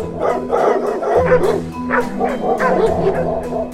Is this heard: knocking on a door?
no